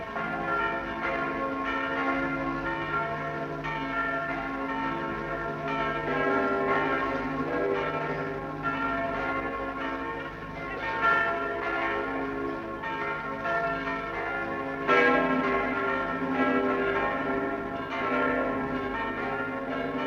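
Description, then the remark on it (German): Church bells of the rebuilt Paulskirche in Frankfurt peal continuously, several bells ringing over one another in a dense, resonant wash with sustained overtones and repeated strikes, loud and steady throughout with no voices. “Die Glockentöne der wiedererrichteten Paulskirche in Frankfurt steigen hoch und hell in den Himmel.”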